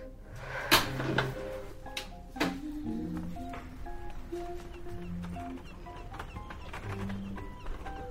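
A heavy prison door, the last door at gatehouse 1, opens: two sharp metallic clunks close together, then another bang, with faint squeaks and a low mechanical rumble continuing. No one speaks.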